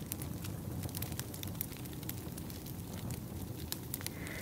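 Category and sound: nature, campfire crackling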